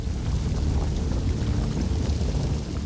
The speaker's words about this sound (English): Up ahead, the sound of rushing water echoed through the cavern. They were approaching an underground river. Shibalanke could just make out two rotten posts holding a bridge across the current.